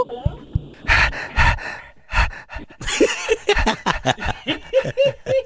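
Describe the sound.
A person imitates a dog panting with a quick, rhythmic series of loud, breathy huffs, a few snorting and voiced bursts mixed in near the end.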